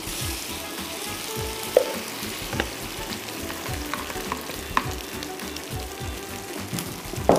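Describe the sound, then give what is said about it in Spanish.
An egg and potato mixture for a tortilla sizzles steadily in a pan over high heat, with a continuous crackle broken by occasional sharper pops and a few soft scraping stirs; no one speaks. “Mientras tanto, la sartén tiene que ir a fuego fuerte.”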